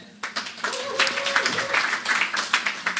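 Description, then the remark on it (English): A church audience breaks into sustained applause after a prayer blessing the youth, many hands clapping together in a dense, continuous wash, with a few scattered voices and a brief tone mixed in. “We, we like clapping in this church.”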